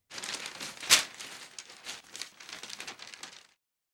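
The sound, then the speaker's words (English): A sheet of paper is handled and folded, with a run of dry crinkles and rustles, one sharp crisp crackle near the start, then softer creasing that stops abruptly. “A piece of paper cannot be folded more than nine times. Try it.”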